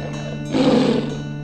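A single short tiger roar, a low, rough growl lasting about half a second, rises above a steady background hum and then fades out.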